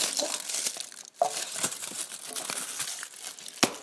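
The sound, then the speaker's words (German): Continuous crinkling of the paper wrapper of a 200-gram chocolate bar, with irregular rustles and sharper crackles throughout and a couple of louder snaps near the start and end. No voices. “Ja, ihr hört jetzt gerade nur das Knistern von der Schokolade, also vom Schokoladenpapier.”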